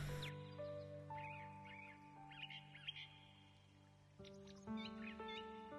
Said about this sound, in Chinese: 你可以听到小鸟的叫声。